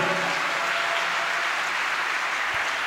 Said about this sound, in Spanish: ¿Cuántos dicen amén, amado hermano? Dale un aplauso a Dios, a su nombre, gloria.